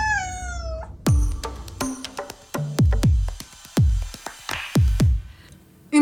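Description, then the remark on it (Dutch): A cat lets out a long, wavering meow, then a run of sharp, ringing notes follows in an uneven rhythm, like a cat being made to sing, loud. “Dus ik begrijp dat ik voorlopig nog niet van de maffe dansjes en de zingende katten af ben.”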